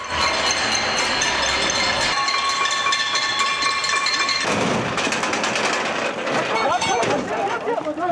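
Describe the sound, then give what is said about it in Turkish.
Continuous metallic clanging and clinking as people at windows in Kurtuluş, Istanbul, Turkey, bang pots and spoons together to welcome the New Year, a dense, loud, bright clatter with overlapping shouts and voices throughout. “İstanbul Kurtuluş'ta her yıl olduğu gibi camlara çıkarak tencere ve kaşıkları birbirine vurarak girdiler yeni yıla.”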